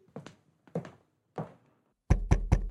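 Knocking on another person's wooden door: three spaced, hollow raps, followed by a quicker, louder burst of three knocks, with no voices.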